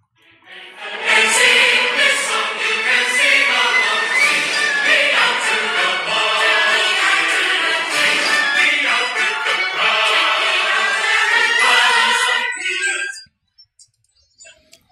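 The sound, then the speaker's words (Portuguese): A song plays as a man's phone ringtone, bright and loud with a steady, ticking rhythm, running for about twelve seconds before cutting off abruptly. No one speaks over it. “Essa é a música Era que isso. toca no telefone do cara.”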